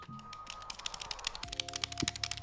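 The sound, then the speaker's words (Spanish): Rapid, crisp clicking of mechanical game controller buttons being pressed over and over in an irregular flurry, with a faint steady electronic hum underneath. “Y los botones, Javier, son mecánicos.”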